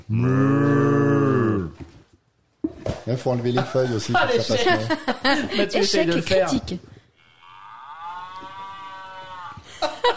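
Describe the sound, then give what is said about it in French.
A single loud, drawn-out cow moo sounds first, low and steady, from the box of the reissued game Mo as it is opened, then people talk over each other and laugh. “Qui se joue en moins de 15 minutes, effectivement, et euh, que tu m'as fait découvrir dans la réédition, euh, notamment celle avec la boîte que quand tu l'ouvres, ça fait.”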